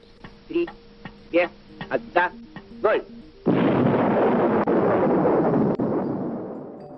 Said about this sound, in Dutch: In 1949 deden de Sovjets hun eerste atoomtest.